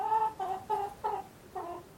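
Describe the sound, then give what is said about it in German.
A run of hen clucks, about five short tonal bursts in quick, slightly uneven rhythm, clear with no voices around. “Die ewig gackernde, sich grundlos aufregende, aufeinander einhackende Hühnerschar eben.”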